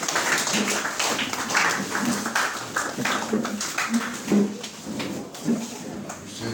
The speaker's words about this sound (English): Be seated. Can we clap on for grace?